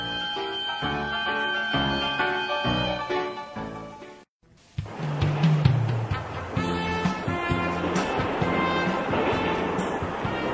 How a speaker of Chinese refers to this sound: 哎，啊，你们听到没有？注意听。火车要开喽！